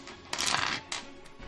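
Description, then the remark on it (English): Dice clatter onto a floor, with a sharp rattling burst followed by two quicker, fainter bounces, with no voices. “Nope, nope, no, I lost the dice on the floor.”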